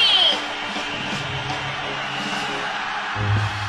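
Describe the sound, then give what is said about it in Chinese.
The audience of the Daming Talk Show (大明脱口秀) applauds and cheers to welcome the show's star, a steady, dense wash of clapping and voices that keeps up for a few seconds, with a low musical tone entering near the end. “Ladies and Gentlemen，现在是大明脱口秀时间，掌声欢迎我们亲爱的 s t a r”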